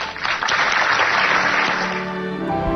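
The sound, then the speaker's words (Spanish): Steady audience applause given with affection in remembrance of Alejandro, a dense crackle of many hands clapping at once, loud and sustained throughout with no voices standing out. “Aplausos para Sabela en la evocación de Alejandro con todo afecto.”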